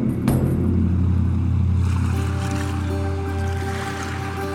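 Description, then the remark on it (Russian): A steady motor drone with low harmonic hum and water wash as a whale-hunting crew from the village of Uelen heads out to sea in several boats, continuing evenly throughout with no voices. “В море выходит на нескольких лодках.”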